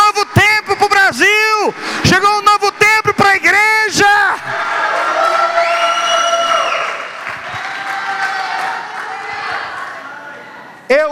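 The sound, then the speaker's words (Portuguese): A crowd cheers loudly: several voices let out long, rising and falling shouts at first, then the noise swells into a sustained roar of cheering and applause that fills the remaining seconds. “Ah, meu irmão, aplauda isso, bata palma, dê um grito de vitória.”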